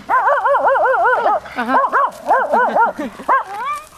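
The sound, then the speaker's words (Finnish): A person's voice imitates a dog barking at an approaching man, with rapid, warbling 'wow-wow' yaps and whimpery rises in a continuous burst lasting a few seconds, followed by a few shorter yips. “Käy haukkuu miehelle vastaan tulijalle.”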